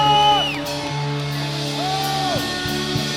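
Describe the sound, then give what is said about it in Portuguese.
A large audience shouts a victory cry and whoops together in praise of the Lord, loud cries swelling and falling over a steady backdrop of sustained music, with a few sharp thumps near the end. “Dê um brado de vitória, aplauda o Senhor.”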